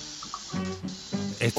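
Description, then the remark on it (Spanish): A steady hiss of food sizzling in a pan as someone cooks runs throughout, with a voice briefly sounding over it in short bursts. “Está haciendo el podcast cocinando, madre mía.”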